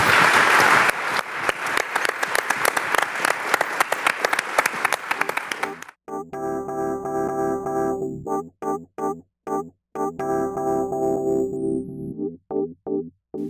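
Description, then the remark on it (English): An audience bursts into a loud, dense round of applause lasting about six seconds, then it cuts off abruptly and a choppy, stop-start stretch of music takes over. “Should we give Rock those two a big uh, round of applause?”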